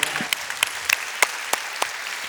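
Applause from a small group: scattered, uneven claps with a few sharper hand strikes standing out over a soft, continuous patter, no voices.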